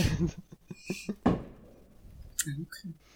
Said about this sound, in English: That was a firework. Don't worry about it. We're still shooting off fireworks near you.